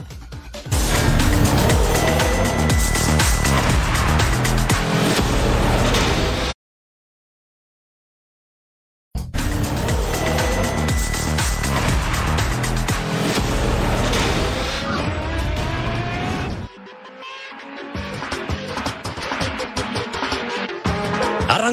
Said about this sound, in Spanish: rugen los motores de la Fórmula 1 en el Gran Premio de Bahrein.